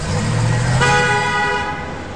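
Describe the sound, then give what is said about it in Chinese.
A big truck, the new PAW Patrol patrol vehicle, speeds up: its heavy engine rumbles loudly for under a second, then a single sustained horn blast sounds, bright and multi-toned, holding for about a second before fading beneath the continuing motor noise. “这时，一辆大卡车疾驰而来，”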